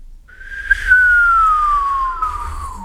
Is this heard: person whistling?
yes